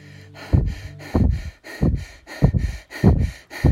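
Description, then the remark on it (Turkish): A person pants heavily and rapidly during a guided breathing exercise, about six loud breaths in a steady quick rhythm, like someone out of breath after running hard. “Hani böyle e, koşmuşsunuz da maratonlarca ve nefes nefese kalmışsınız nefeslerinize doğru geçin.”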